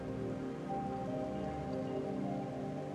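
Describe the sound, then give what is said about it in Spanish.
River water flows steadily in a continuous, even rush, calm yet strong, with no voices and no breaks in the sound. “Así que siguen caminando, se siguen acercando hasta llegar a este río. El agua fluye tan tranquila, pero a la vez con tanta fuerza.”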